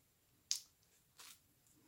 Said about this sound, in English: Before we get back into the film, time for another sip of eggnog.